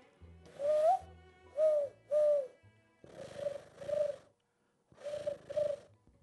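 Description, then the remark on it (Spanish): A person imitates a dove's cooing with seven low, hollow hoots in three short groups, fairly loud, with brief pauses between the groups and no talking. “Estás cada vez más palomo.”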